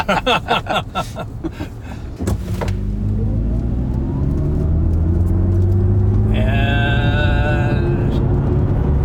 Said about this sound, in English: just an oh so slight electric motor sound. That's not the supercharger. If it is, it's a it's really a punk ass supercharger.